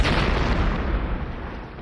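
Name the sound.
explosion sound effect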